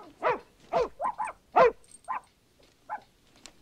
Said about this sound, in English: It's a puppy, isn't it? Mm. Yeah, it is. I can tell.